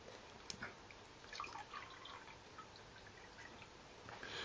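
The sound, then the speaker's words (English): Soft liquid sounds of someone sipping water, with faint wet slurps and small drips over a few seconds and no one talking. “I need a, a sip of water.”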